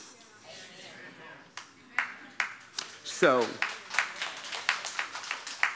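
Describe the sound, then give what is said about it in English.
About six scattered hand claps ring out in an irregular, sparse rhythm, moderately loud, while a voice speaks briefly over them, then the thin clapping continues on its own. “I know, I got six claps, I know, because y'all want me to please you more than God.”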